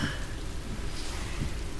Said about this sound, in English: The sound of the cars and then the rain outside, cars flying past, and now the windscreen wipers.